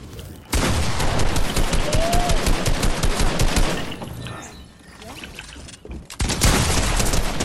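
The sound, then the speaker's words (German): Loud bursts of rapid video game gunfire, a sustained spray of shots lasting several seconds, then a brief lull before another fast volley. “Hör mal auf nee, zu sprayen”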